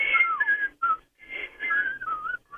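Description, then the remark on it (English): A man whistles a bouncy TV theme-song melody, the tune gliding between notes in two short breathy phrases with a brief pause between them, and no talking. “I can't whistle that long because I can only now. whistle.”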